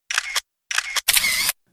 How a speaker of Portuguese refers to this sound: é bem difícil pensar em ajustar o ângulo da câmera, medir a distância focal, pensar em filtro, controlar a intensidade da luz, verificar o fotômetro, conferir a velocidade do obturador e finalmente disparar o clique fotográfico.